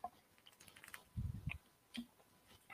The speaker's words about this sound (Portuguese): Ah, mais um golinho de água aqui, né, para aguentar.